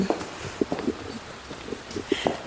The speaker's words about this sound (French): Bon, il pleut toujours, mais ça vous l'entendez. Petite pluie sympathique.